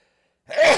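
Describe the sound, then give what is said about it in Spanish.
After a brief silence, one sudden, forceful sneeze bursts out, loud and breathy, with no talking around it. “Ay, Dios mío, ¿qué pasó ahí? Me dio un estornudar.”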